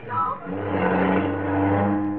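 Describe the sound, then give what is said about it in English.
A car engine roars loudly, holding a steady, humming drone as it revs and speeds off, going 110 miles an hour, filling about two seconds. “we're going 110 miles an hour.”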